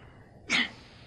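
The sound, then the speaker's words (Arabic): A single quick sneeze, a short sharp burst of breathy noise that rises and fades within a fraction of a second, against a quiet background with no talking. “وعلمه ومهارته رحمك الله”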